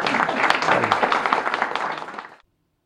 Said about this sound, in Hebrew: ואני אומר לכם שמגיע לו, אה, איך אומרים, אתם יכולים למחוא לו כפיים גם.